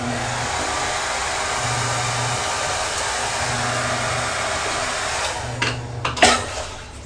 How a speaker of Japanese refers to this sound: でもだいぶちょっとだけドライヤーするだけで、まあ、だいぶ乾く感じなんだけれども、